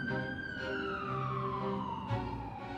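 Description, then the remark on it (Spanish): An ambulance siren wails in a single long tone that slowly falls in pitch, loud, over a low engine rumble with no one speaking, as the ambulance arrives at the door of a building. “Mientras ambos recuperan el aire, una ambulancia aparece en la puerta del edificio.”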